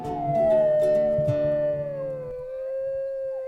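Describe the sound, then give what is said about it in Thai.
A single drawn-out wolf howl answering in the dark, steady and mournful, slowly gliding in pitch and holding clearly for several seconds with no other sounds around it. “มีเสียงฮ้อนกลับมาในความมืด”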